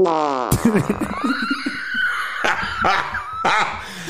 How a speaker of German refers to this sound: Warte, kommen wir nochmal, wir müssen jetzt schnell unsere Reaktion nochmal testen, wenn wir sie nacheinander lassen. Also Achtung, mhm. Forz Nummer 3 und Furz Nummer 4.